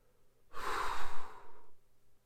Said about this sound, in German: Bitte achten Sie jetzt auf Ihren Atem. Wir atmen kräftig aus.